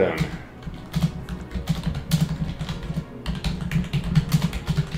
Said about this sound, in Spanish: Es que estoy tecleando la noticia.